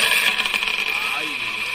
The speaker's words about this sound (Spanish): Voy a tirar los caracoles.